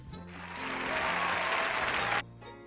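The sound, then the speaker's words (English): A crowd bursts into loud applause and cheering that swells for about two seconds, then cuts off abruptly, leaving a quieter low hum underneath. “well, you're just always stacking those cheers.”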